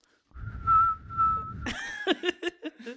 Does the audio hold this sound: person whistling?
yes